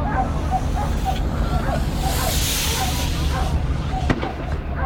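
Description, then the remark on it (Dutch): Amid a loud, constant wash of outdoor crowd noise and voices, a hissing burst swells midway and a sharp pop cracks near the end as tear gas canisters are fired into a canal while riot police clear a bridge. “Daar gaat iets mis met een traangas gebeuren. Wordt in de gracht geschoten.”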